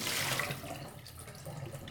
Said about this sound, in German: So, ganz ordentlich. Kippen natürlich wieder ganz, ganz, ganz ordentlich hier das Wasser aus.